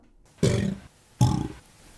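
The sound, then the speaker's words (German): Two short, loud alligator bellows with a pause between them, the second a helium-altered version sounding slightly higher. Each is a raspy, growling roar lasting under half a second, with no talking. “Ähm, Genau, das, äh, ich meine, ein Alligator, der Helium einatmet, kann man sich vorstellen, dass da die Stimmung vielleicht auch ein bisschen äh, ja, erheitert ist”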